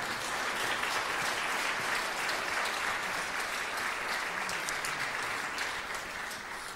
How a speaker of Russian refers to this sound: Аплодисменты, пожалуйста.